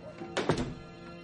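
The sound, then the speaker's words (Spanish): A house door shuts with a dull thunk, a quick double knock of wood and latch, over a faint low background hum. No one speaks. “Cierra la puerta.”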